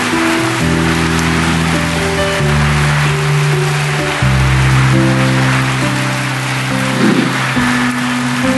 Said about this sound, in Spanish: Así que iglesia, dale un aplauso a tu Dios por lo que por lo que es la salvación.